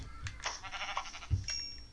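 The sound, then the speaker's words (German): A sheep bleats once in a wavering, nasal call lasting about a second, followed by a soft low thump; no one speaks over it. “hier ist noch ein Schaf”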